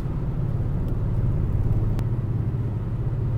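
A car rolls downhill along an Oregon freeway, going down a mountain, with a steady low engine and road rumble, tires droning evenly throughout with a couple of faint clicks, no voices.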